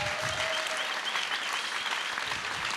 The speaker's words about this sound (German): Und deswegen ist das nochmal euer Applaus. Vielen Dank, dass ihr uns davon erzählt habt.